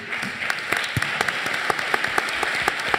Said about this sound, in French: Applaudissements pour Bernard Grèche.